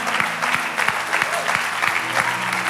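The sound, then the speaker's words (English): An audience claps steadily, the dense patter of many hands carrying a regular beat, as if clapping along in time. The applause stays loud and even throughout. “you're just clapping, you're smiling, you got a real warmth to you.”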